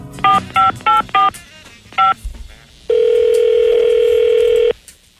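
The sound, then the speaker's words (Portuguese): Five quick touch-tone beeps of a phone being dialed for a prank call, four in a fast run and one after a short pause, followed by a long steady ringback-style tone lasting nearly two seconds. “prova como há pessoas que têm ou doses generosas de paciência ou simplesmente tanto tempo nas mãos que, se um lendário cavalo ficcional eh, que fala lhes telefona para casa, ficam ali a dar-lhe trela uh, o tempo sempre que for preciso.”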